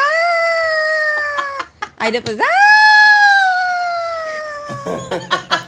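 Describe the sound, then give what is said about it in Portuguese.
A voice imitates the intermittent police car siren jingle of a weekend news bulletin, holding a long, loud wavering tone that rises and slowly falls, broken by short bursts of laughter and speech. “Aí depois ficava uma vinhetinha de viatura, né? O intermitente.”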